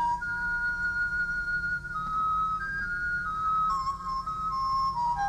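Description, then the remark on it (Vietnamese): The Buddha begins to play a soft bamboo flute: a slow, sustained melody of long held notes that step gently up and down, clear and airy over a faint low hum, with no voices. “Phật bắt đầu thổi sáo.”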